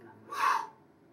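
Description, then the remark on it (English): A single deep, whooshing 'whoo' breath drawn in sharply through the mouth, fairly loud, lasting about half a second with quiet before and after and no talking. “And that sound is a whoo sound.”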